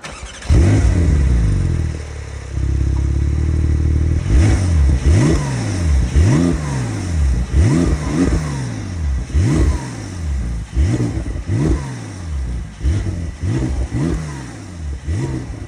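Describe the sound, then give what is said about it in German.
A powerful Porsche 911 Turbo S engine starts and revs repeatedly, each burst of throttle rising sharply then falling away in a steady rhythm, loud with no one speaking; the soft limiter and turbo hiss can be heard. “wir sprechen heute über den Porsche 911 Turbo S, also die stärkste Variante des 911 Turbo”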